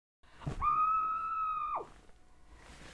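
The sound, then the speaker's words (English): A single muffled scream into a pillow, one steady, high-pitched held cry lasting about a second before it drops off abruptly, followed by quiet background hiss. “I would I request that if you're listening to this and you have the ability to, because I do have to admit, screaming into a pillow was pretty cathartic.”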